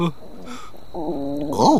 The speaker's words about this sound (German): Äh, da, was war das denn? Noch eine Schlange? Mitnichten. Das war mein Magen. Ja, krass.